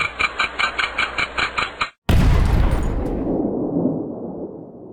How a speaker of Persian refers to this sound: بالاخره توپ تحویل سال شلیک شد